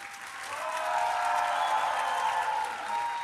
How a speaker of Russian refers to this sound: Вы как-то, вы знаете, вот аплодируете громко, а кричите тихо.